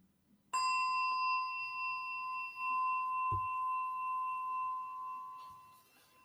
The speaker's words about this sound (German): Und der Klang, der Klangschale kann dir helfen, indem du versuchst, dem Klang, solange es möglich ist, zu folgen. Und das allein hm, hilft dir, still zu werden.